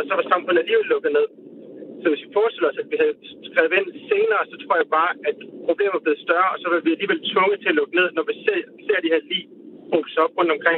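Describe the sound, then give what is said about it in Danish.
A man speaks Danish steadily over a thin, band-limited call line, his voice carrying a rough crackling distortion throughout the continuous speech. “Det er fordi, der er lidt, øh, der er lidt skratten på, øh, på lyden, når du taler,”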